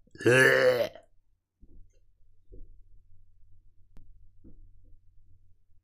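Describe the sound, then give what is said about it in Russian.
A single loud, drawn-out burp lasting about a second, deep and croaky with a rough vocal buzz, followed by a low, faint rumble with a few soft thumps. “И в это время у тебя отрыгивается багбир горячий.”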